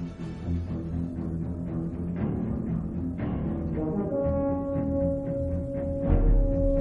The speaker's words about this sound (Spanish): ¿A quién no le suena esta asfixiante melodía